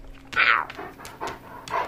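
A dog pants in quick, breathy bursts, with a few soft whimpery huffs in between, fairly loud against a quiet background.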